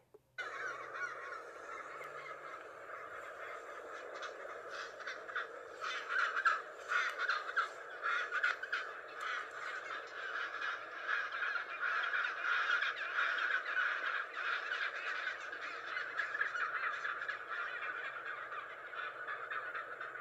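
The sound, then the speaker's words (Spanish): A dense, unbroken chorus of harsh, braying calls from many chinstrap penguins, an Antarctic penguin species, at once, like a noisy colony, steady and fairly loud throughout with no voices. “Por ejemplo, el pingüino barbijo, que es un pingüino antártico, tiene este sonido.”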